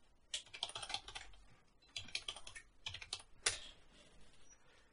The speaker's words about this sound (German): Warte, warte, wir klicken mal hier so.